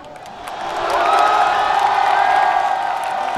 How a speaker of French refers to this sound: Je propose d'écouter la réaction du public français lorsque l'arbitre du match a, sifflé la, fin du temps réglementaire et la victoire des Bleus.